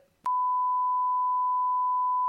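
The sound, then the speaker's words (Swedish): A single steady censor beep at one pitch, covering a spoken name, holds for about two seconds, loud and clean, cutting off faint talk just before it and ending abruptly. “Och så folk, eh, du vet han, eh, jag kan säga det här namnet du måste bipa.”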